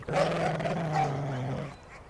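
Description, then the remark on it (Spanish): A dog lets out one steady, drawn-out growl lasting under two seconds, low and rumbling with a slightly whiny edge, then falls quiet. No voices are heard. “Los vecinos enloquecían y me atacaban con palos y piedras con fuego y perros.”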